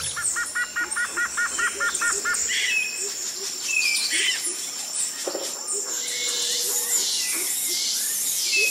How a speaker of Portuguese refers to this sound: pássaros vibrantes voavam de galho em galho, suas canções enchendo o ar de música.